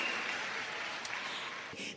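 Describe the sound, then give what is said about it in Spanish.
Sustained audience applause at an Amway business event for the Diamonds, a dense, steady wash of many hands clapping at once, fairly loud and even throughout with no voices over it. “Grande el aplauso para esos grandes diamantes.”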